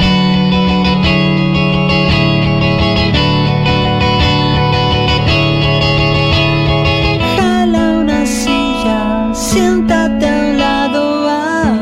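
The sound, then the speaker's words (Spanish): A rock song from a 2003 album plays loudly, with a sustained, distorted guitar-like drone over a steady pulsing beat, shifting to higher, brighter notes partway through. No talking is heard. “Vamos a escuchar entonces del disco … del año 2003”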